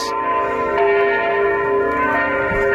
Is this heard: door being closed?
no